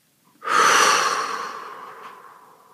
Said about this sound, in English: And again, breathing in purest, highest light, into your field and hold and let go, release.